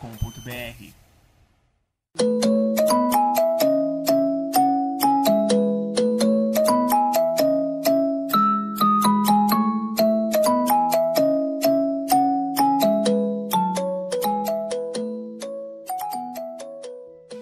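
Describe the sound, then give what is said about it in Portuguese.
A loud, bright jingle of ringing bells, dozens of struck notes chiming in quick rhythmic succession for about fifteen seconds, each one ringing briefly before the next, after a short faint noise. “toquem os sinos da liberdade para a troca mais horrorosa dessa temporada até o momento”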